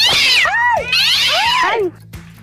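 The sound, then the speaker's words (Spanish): A cat named Satanás lets out two loud, drawn-out meows in quick succession while scratching a person, each meow sliding up and then down in pitch with a whiny, yowling tone, followed by a brief quiet moment. “¡Satanás! ¡Deja de rasguñar a la niña!”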